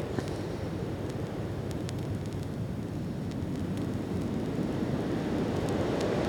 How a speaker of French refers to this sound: Qui se cache derrière ce vent Personne n'a trouvé encore.